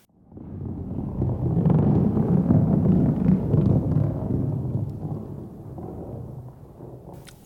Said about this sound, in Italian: un rombo di tuono.